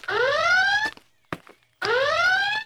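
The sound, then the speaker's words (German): An alarm siren wails in two rising sweeps, each lasting under a second with a brief gap and a short click between them, loud with no voices. “Alarm! Wir werden angegriffen!”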